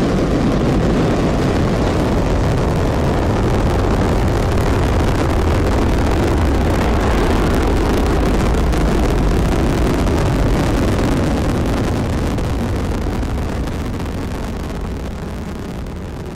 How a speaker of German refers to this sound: 3, 2, 1, 0. All engine running. Liftoff. We have a liftoff.